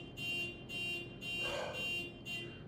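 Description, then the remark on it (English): A car alarm, set off by someone trying to open their locked car without unlocking it, blares in loud, repeating high-pitched bursts, pulsing roughly twice a second with a harsh buzzing tone and no voices over it. “like, oh shit, I, I tried to open my car without fucking unlocking it.”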